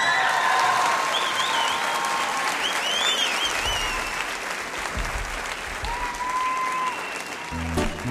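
A live audience claps in a dense, steady roar of applause, with several shrill rising whistles cutting through. It stays loud throughout, easing only slightly near the end.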